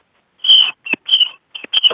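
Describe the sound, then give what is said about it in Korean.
A person imitates a tiger with a run of five strained, high-pitched vocal cries: one long opening howl, then shorter uneven bursts, fairly loud and with no other talk. “호랑이, 아니, 그이 호랑이, 호랑이 다시 한 번, 호, 호랑이 다시 한 번.”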